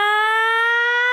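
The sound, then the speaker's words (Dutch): A single loud sung "ah" held steadily for about a second, a bright, strained-sounding note pushed in chest voice instead of switching to head voice, creeping slightly upward in pitch, with no other sounds around it. “Dus dan gaan ze duwen, duwen, duwen in de borststem bijvoorbeeld, om dan ineens hoep, te gaan schakelen naar kopstem.”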